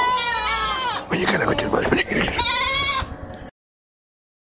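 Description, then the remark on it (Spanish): Goats bleat loudly, a long quavering cry followed after a short pause by another, with a person speaking briefly in between. “y ahora, unos chivos.”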